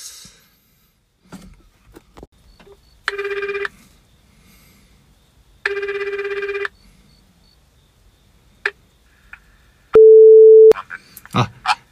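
Two buzzy telephone ringback tones, each about a second long and separated by a pause, come through the earpiece as a call is placed to a police station, followed by a louder, steady electronic beep and some brief handling clatter.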